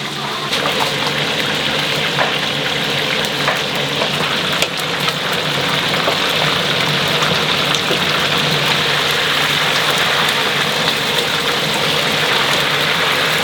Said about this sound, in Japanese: 今朝は再開発で移転が予定されている京成立石駅前鳥房のいい音